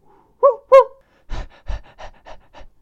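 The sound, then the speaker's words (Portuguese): A voice imitates an excited dog: two sharp, high-pitched yips followed by a quick run of about six breathy panting huffs, fairly loud, with no other talking. “Depois tem aquele que ladra mais agudo, com a cauda a abanar que nem uma hélice de helicóptero.”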